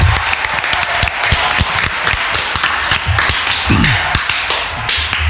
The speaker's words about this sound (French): Applaudissons un le groupe … euh, qui est vraiment super marrant.